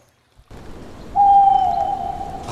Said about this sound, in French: une chouette. Oui. Hibou. Oui. Hibou. Euh, un ululement.